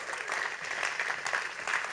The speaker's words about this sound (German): Und wir geben diesen Jungs mal einen riesen fetten Applaus, was sie da hergebracht haben.